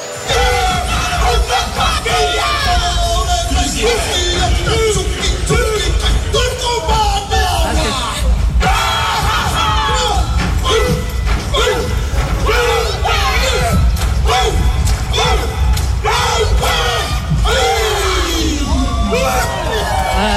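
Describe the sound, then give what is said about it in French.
A New Zealand troupe of world haka champions performs a Māori haka war chant at Place de la Concorde, bellowing forcefully and rhythmically with sharp collective shouts and yells over a loud, dense crowd that stays at full volume throughout. “je me suis cru à Auckland parce qu'il y a une compagnie néo-zélandaise, championne du monde de haka, qui a livré des haka pendant 15 minutes.”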